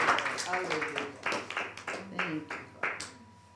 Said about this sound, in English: Yeah, let's clap.